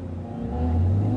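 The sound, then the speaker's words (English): A powerful race car engine idles and revs as the car pulls up to the start line beneath the start tower at a British motorsport venue, its deep rumbling tone swelling louder and steadier over about a second, with no voices. “Just pulling up to the line”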